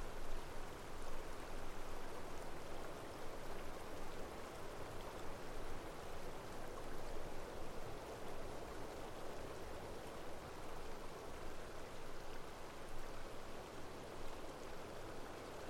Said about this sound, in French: Vous pouvez entendre sa douce mélodie, l'eau jaillir de la source et rebondir sur la roche avant de couler sagement dans un ruisseau.